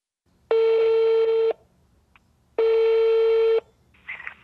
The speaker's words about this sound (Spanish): Y al día siguiente, por la noche, decidió tomar el teléfono y llamar al número que estaba en los volantes.